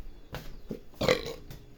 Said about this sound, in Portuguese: Nossa, cara, esse arroto foi feio, hein, cara?